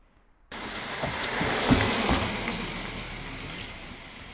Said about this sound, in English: Sounds like a fast car. Yeah. So that's her slowing down.